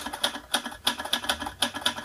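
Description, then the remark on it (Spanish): Typewriter keys clack in a quick, slightly uneven run of sharp strikes, clear, with no one speaking. “Máquina de escribir”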